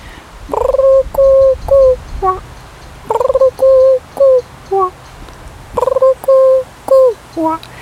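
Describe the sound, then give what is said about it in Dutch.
Someone imitates a turtle dove's cooing, a soft tonal coo phrase repeated three times in an even rhythm, each phrase several short hooting notes, clear with nothing else around it. “Een tortelduif, die heeft een mooi eh, klassiek licht geluid.”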